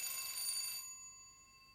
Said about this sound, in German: Jetzt läutet der oder die nebenan. Ist vielleicht der Briefträger? Kann sein.